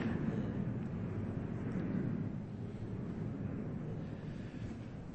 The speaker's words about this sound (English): okay, let's wait for the airplane to go pass by.